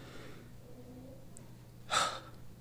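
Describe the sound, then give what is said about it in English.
A single strained, breathy exhale bursts out near the end, rough and airy, following a stretch of faint quiet breathing and low background hum; no talking. It is the final breath of a dying person on their deathbed. “In those final moments, you hear breathing. It gets slower and slower, strains more and more.”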